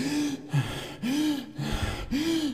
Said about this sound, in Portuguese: Não, é a respiração de meditação. Ninguém fica tonto meditando, né? Então. Não precisa soltar pela boca, tá?